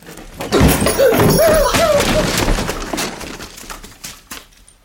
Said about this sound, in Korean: 뒷문이 부서지는 소리를 내며 떨어져 나가고 삼촌의 커다란 뒷모습이 어둠 속으로 곤두박질을 했다.